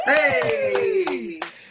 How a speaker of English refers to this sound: Can we give this massive round of applause for the other Capricorn in our lives